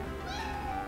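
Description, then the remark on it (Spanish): A single drawn-out meow from Matú the cat, fairly clear, with a rising then sustained tone lasting about a second over a steady low background hum; no talking. “Matú el gato jetón dice que podemos seguir con el show.”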